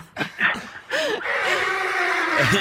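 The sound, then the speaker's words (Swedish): A person imitates a horse's neigh with a few breathy bursts, then a long, wavering, high-pitched whinny that slides and trembles before fading out, loud throughout. “ja, sista gnägg där också.”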